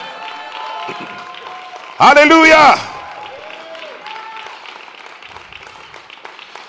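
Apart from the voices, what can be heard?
audience applause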